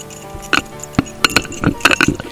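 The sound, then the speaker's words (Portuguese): Small surgical platinum staples, formerly in a person's knee, clink together in a quick, irregular series of about seven bright, high-pitched ticks and jingles, with no voices. “Esses que são os grampos de platina que estavam no meu joelho.”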